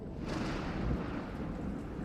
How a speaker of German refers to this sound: Draußen über dem Meer grollt das nächste Gewitter.